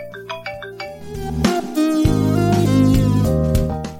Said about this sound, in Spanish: Marimba. Marimba. Seleccionado. Marimba.